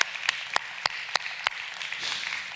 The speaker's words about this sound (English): Oh, you ought to clap your hands about that today. Come on.